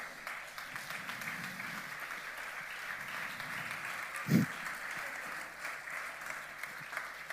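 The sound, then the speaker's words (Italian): An audience applauds steadily to welcome a performer being presented on stage, a dense wash of clapping that holds at an even level throughout, with one brief louder thump partway through. “Vogliamo presentarvi il Gesù tappabuchi, accogliamolo con un applauso.”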